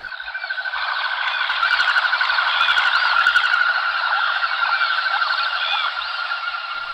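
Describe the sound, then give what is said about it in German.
A dense chorus of common goldeneye ducks calling all at once, countless overlapping nasal calls blending into a steady, continuous wall of sound with no voices. “Insgesamt gibt es auf der Welt das ganze Volk sozusagen der Shellenten etwa zwei Millionen, in Europa ein Achtel davon.”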